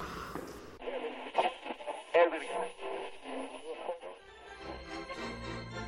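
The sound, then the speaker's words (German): A brief burst of static as a radio clicks on, tuned to Kinderradio Kurzwelle, followed by a tinny, band-limited broadcast of muffled voices and music playing steadily at moderate volume. “höre jetzt lieber Radio.”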